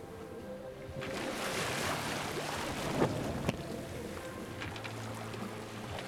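ambience, sailboat at sea

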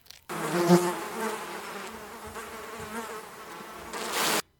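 insect, flies buzzing

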